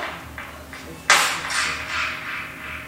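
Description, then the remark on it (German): Layered sampled tones from a gymnastics skipping rope and a rake, drenched in reverb that lengthens the tone: a few soft taps, then a sharp struck hit that rings out in a long, shimmering tail. “vom Gumpiseil, oder? Mit ein bisschen Hall drauf. Das macht den Ton viel länger.”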